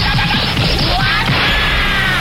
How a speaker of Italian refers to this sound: Oh, ma che? Ma no, niente, quando mette le marce fa così.